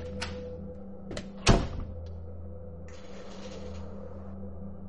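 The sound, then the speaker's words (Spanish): A door opens and closes as someone quickly goes out through it: a couple of light clicks, then a solid thud as it shuts, followed by a brief scraping rustle over a low, steady background hum. “Y salgo por la puerta rápidamente eh, en busca de Eric”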